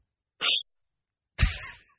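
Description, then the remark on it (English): Two short bursts of pressurized spray hiss from an aerosol can of whipped cream sprayed into a person's mouth, the second one sputtering and wetter than the first, with a brief pause between them. “looks like he he sprayed uh, Miracle Whip in his mouth”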